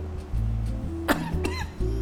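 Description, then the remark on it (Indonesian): Two short, sharp coughs in quick succession, fairly loud, over a low steady hum with no talking. “batuk ya.”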